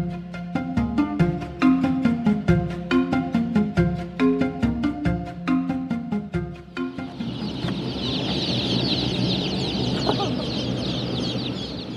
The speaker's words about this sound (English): So, are those chickens? Yeah, those are chickens. About 1,200 of them, actually.